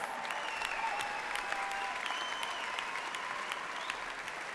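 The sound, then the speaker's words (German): Steady audience applause fills the whole stretch, a dense wash of many hands clapping at once with a few brief whistles rising above it, even in loudness throughout. “Gebt ihnen einen großen Applaus.”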